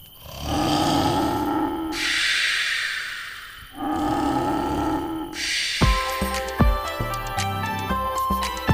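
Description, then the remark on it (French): A bear snores loudly, deep rumbling breaths alternating in and out about four times, before a short burst of music takes over at the end. “Parce qu'un ours qui ronfle, cela fait un abominable bruit.”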